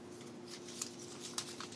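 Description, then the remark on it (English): Soft rustling of paper slips being shaken and handled during a prize drawing for a poster signed by Norman Reedus, with a couple of brief crisp crinkles standing out over a faint steady background hum. No one speaks. “Unless you just have an MP3 of the sounds of paper.”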